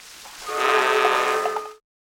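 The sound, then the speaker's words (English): A single dramatic musical sting, a 'dun' marking a villain's entrance in the drama Desperate Desmond: one loud, brassy sustained chord swells in, holds for just over a second, then cuts off abruptly into silence. No voices. “Now, these were only single or double duns, not triple duns, not full blown dun dun duns.”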